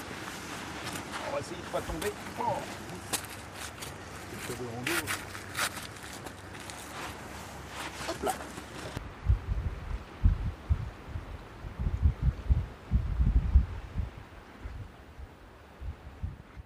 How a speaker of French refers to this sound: Je pose le micro, je vais laisser prendre un peu de son du son de la, plage et je vais faire des photos tout de suite.